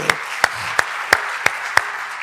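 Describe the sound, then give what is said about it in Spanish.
An audience applauds, a steady wash of many hands with a handful of sharp, evenly spaced claps standing out in a regular rhythm. Nobody speaks. “Denle un fuerte aplauso a”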